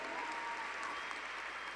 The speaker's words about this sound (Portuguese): Pode aplaudir ao Senhor.